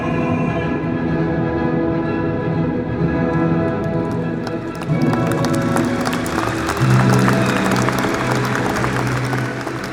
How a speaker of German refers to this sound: Das Publikum ist begeisterungsfähig, aber hörbar unerfahren mit Wagners durchkomponierter Musik. Solcher Szenenapplaus wäre anderswo undenkbar.